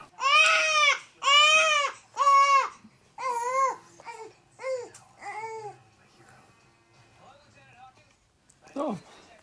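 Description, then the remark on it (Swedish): A baby girl being handed over to her mother wails in three long, loud, high-pitched cries, then shifts to shorter, softer sobbing bursts that taper off before one last brief, falling whimper. “och sen kommer då ett klipp eh, när hon eh, lämnas över till mamma. Då låter det så här.”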